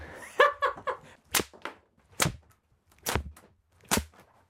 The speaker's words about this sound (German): Oh, schwingt die Peitsche und das Mikrofon fällt runter.